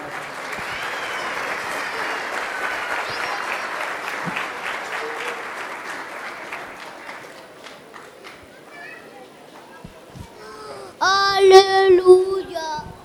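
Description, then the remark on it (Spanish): Sustained audience applause for a performance, a dense crackle of clapping that holds steady for several seconds, then fades as children's voices and chatter rise more loudly toward the end. “Aplauso muy bonito esta representación.”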